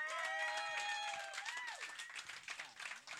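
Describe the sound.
A crowd bursts into dense, sustained applause for the evening's performing artist, with rapid overlapping claps and some whooping and cheering voices rising above the clapping throughout.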